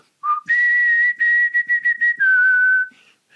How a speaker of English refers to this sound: I had had kicking around for a long time just uh, a chord progression and a melody, and the chords was the three chords of the what ended up being the verse and then I would whistle over it